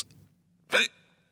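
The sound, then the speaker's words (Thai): A single sharp hiccup, fairly loud, with a sudden voiced gulp and breathy edge, following a faint brief breath at the start; otherwise quiet. “It's a sound of hiccups.”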